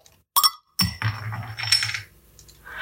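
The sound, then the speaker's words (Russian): A sharp metallic pop as the cap is pried off a bottle of grapefruit beer, followed by the cap clinking and rattling as it drops down and settles on a hard surface. “Даже крышечка куда-то вниз упала.”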